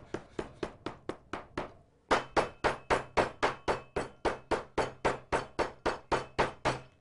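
A knife rapidly mincing steak on a cutting board, with quick, evenly spaced sharp chops: a short burst, a brief pause, then a longer, louder run of steady chopping. No one speaks.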